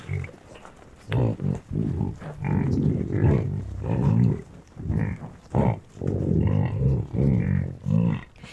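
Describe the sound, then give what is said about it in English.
Deep, rough grunts and breathy snuffles from bison in a corral, grunting to their young, come in a steady run of short, loud bursts, low and rumbling with noisy exhalations between them, and no one talking. “As the party dies down, I wander over to the corral and listen to the bison snuffling and grunting to their young.”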